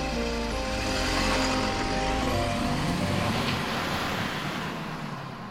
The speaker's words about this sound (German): Er macht den Motor an und fährt los.